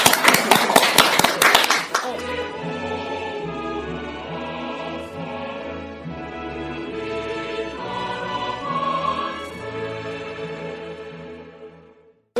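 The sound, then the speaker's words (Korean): A short burst of loud studio audience clapping for about two seconds, welcoming a guest introduced as the granddaughter of Ahn Eak-tai, composer of the Korean national anthem; then it stops as sustained instrumental music carries on to the end. “다시 한번 큰 박수로.”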